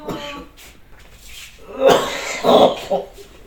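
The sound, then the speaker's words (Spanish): A dog named Cata retches in a few harsh, rasping heaves, rising in force over a couple of seconds, with a soft voice murmuring underneath at the start. “Cata, ¿por qué no te sales? Salte afuera, si vas a vomitar.”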